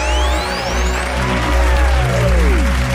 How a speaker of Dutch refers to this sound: Live hier op uh, eh, 5 bij Nachtdieren. Echt een hartelijk applaus hier in de studio.